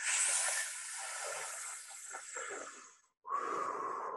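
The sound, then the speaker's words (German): An airy inhale sucked sharply through pursed lips for about three seconds, as if breathing through a straw to ease difficulty breathing: a hissing, slightly whistling draw of breath, then a brief pause and another short breathy rush. “Und äh, was noch hilft, wenn du Schwierigkeiten hast mit dem Atmen, du, wie so, als würdest du durch einen Strohhalm atmen. Also spitze Lippen und die Luft so einsaugen, so.”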